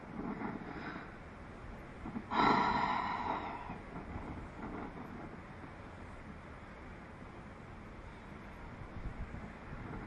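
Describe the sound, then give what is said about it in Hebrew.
A slow, deep breath during a guided breathing exercise: a soft inhale followed by a louder, airy exhale, then steady rushing background noise with no talking. “עוד נשימה אחת.”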